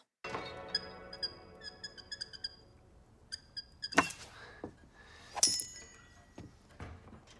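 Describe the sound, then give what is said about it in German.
Canvas Chucks sneakers in a film scene squeak and tap in an irregular series of sharp sounds, some with a thin high ringing tone, plus a few louder scuffing thuds. No one speaks. “es waren Harrys Schuhe, er hatte Chucks an”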